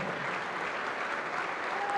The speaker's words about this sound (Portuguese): Vamos aplaudir, vamos aplaudir. Olha a multidão que está chegando. Vamos aplaudir mais.